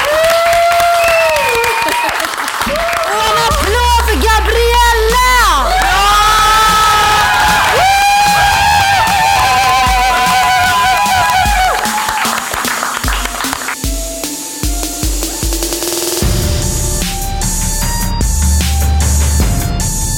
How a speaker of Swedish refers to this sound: Och en applåd för er!